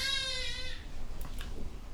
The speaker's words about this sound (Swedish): Ja, vi hör lite barn, barnskrik i bakgrunden. Vi får försöka, försöka stå ut.